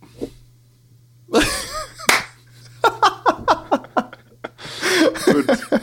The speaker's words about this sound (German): Ja, dann starte ich ja jetzt auch mal meine Aufnahme. Wunderbar. Und ich klatsche mal kurz.